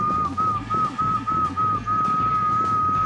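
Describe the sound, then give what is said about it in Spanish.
A person whistles a long, steady high tone that wavers slightly in pitch, imitating the squealing test tones of a radio in a radio repair workshop, held for about three seconds over a low background hum. “Cuando nosotros éramos chicos, mi viejo tenía un taller de radio y saber que mi papá estaba era porque escuchabas esos chiflidos.”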